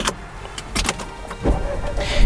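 A few metallic clicks and rattles of a key turning in a car ignition, then an engine cranks and catches at about mid-clip, settling into a steady idle hum.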